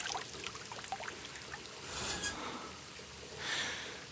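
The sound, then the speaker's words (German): Water from a running shower streams and patters steadily on two people's skin, with a soft continuous hiss that swells briefly twice. It stays fairly quiet throughout, and no one speaks. “Ich lehne mich an ihn und das Wasser prasselt auf unsere Haut.”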